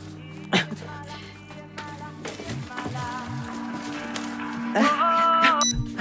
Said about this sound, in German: Carlys Handy klingelt. Das ist doch Carlys Handy.